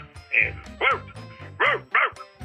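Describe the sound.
A man imitates a dog barking with four or five short, loud, throaty woofs in an uneven rhythm, with a low hum underneath.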